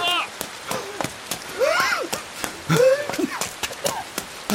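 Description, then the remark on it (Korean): Raindrops patter in scattered, irregular taps across the whole stretch, while a voice makes rising and falling drawn-out vocal sounds over them. “아, 지금 빗방울 떨어지고 있는데 옷다 젖으면”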